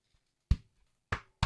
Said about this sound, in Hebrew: ואתה מנגן על דלת, שהיא בעצם הבאס שלכם פה, נכון? תן איזה מכה שיבינו...